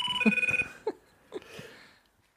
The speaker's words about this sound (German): ich habe vergessen, mein Telefon stumm zu schalten.